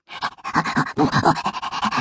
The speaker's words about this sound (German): Der Hund hechelte aufgeregt.